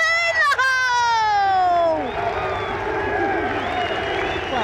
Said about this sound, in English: you can hear the reaction here on 13. He is ramping up the crowd. They love him for that. Yeah, chipped in. It's gone straight in the hole.